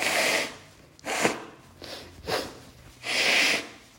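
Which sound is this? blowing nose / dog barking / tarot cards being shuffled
blowing nose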